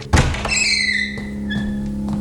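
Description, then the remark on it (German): A door opens: a solid latch-like thunk, followed by a drawn-out squealing creak that glides downward in pitch, with a steady low hum underneath and no voices. “Das ist eine Tür. Mal sehen.”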